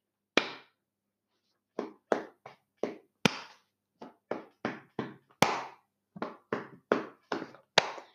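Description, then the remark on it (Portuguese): A rhythmic body-percussion pattern: dull slaps on a leg repeated in quick succession, interspersed with sharper hand claps, about seventeen crisp hits in all with short gaps, no voices. “A minha, a, a minha mão vai bater na perna cinco vezes sem parar.”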